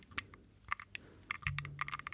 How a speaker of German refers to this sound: kriegt man hier die Eiswürfel mit.